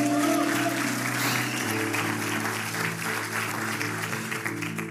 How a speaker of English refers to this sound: Can somebody give God a clap offering?